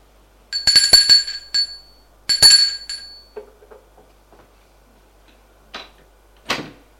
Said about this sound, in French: Arrivé à l'étage, il sort. Va sonner à la porte.